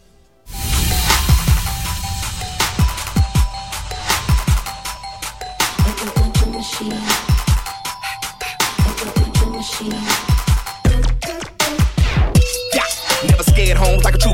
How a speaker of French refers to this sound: Euh, et on va s'écouter un remix, hein, puisqu'ils ont eu, euh, ils ont l'habitude de se faire remixer par pas mal d'artistes.